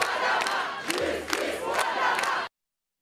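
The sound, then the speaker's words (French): A large protest crowd in France, demonstrating against police violence and racism, shouts "Justice" together in loud, rhythmic bursts, a dense roar of many voices with sharp accented peaks, continuous before cutting off abruptly. “Je pense que tous ensemble, on peut faire entendre nos voix et si on crie à l'unisson, peut-être qu'ils nous entendront.”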